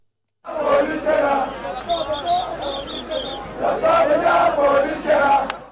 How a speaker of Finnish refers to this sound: Hänet on kukistettu ja me olemme voittaneet, kaikuivat mielenosoittajien huudot pääkaupunki Kartuumissa.